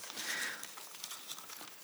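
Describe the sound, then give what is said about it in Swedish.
Papers rustle and shuffle on a lectern stand, a soft, continuous crinkling for about two seconds with a small tap near the end. The sound is fairly quiet, with no talking. “Ni borde ha ett bredare stativ så jag får plats med alla mina papper.”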